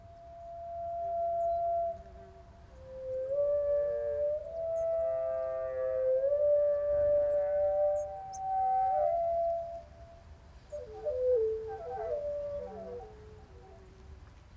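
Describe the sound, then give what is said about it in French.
A fast, high-pitched bird song slowed down by several octaves so researchers could analyze it: long, eerie whistling tones that glide and waver like a howl or whale call, later breaking into warbling, tumbling notes, heard alone with a low rumble beneath. “Les chercheurs ont donc dû le ralentir de plusieurs octaves pour pouvoir l'analyser.”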